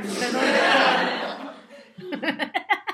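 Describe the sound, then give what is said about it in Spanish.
A dense wash of recorded audience laughter swells and fades, then gives way to a burst of rhythmic, chuckling laughter in short repeated pulses. “Risas grabadas.”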